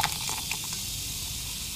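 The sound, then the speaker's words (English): Soda fizzing with antacid tablets: a steady, soft hiss of bubbles with a few tiny crackling pops early on, continuing evenly throughout with no voices. “Okay, you heard those bubbles.”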